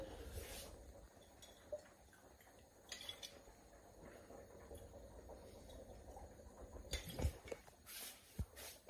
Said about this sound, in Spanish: Voy a beber agua, discúlpame, la verdad es que no lo voy a cortar porque quiero que estos vídeos sean 100% reales.